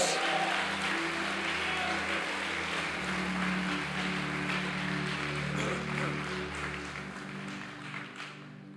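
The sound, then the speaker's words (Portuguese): A crowd claps steadily for several seconds in praise of Jesus at a preacher's call, a dense wash of applause over a low droning hum, tapering off slightly toward the end. “Se você crê nisso, por favor, dá um glória aí, aplaude a Jesus, pelo amor de Deus.”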